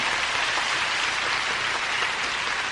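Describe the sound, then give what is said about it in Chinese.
Steady applause from an audience clapping on cue while the speaker pauses, a dense wash of many hands clapping at an even level throughout, with no voices rising above it. “哎，看底下，哎，大家就鼓掌了。”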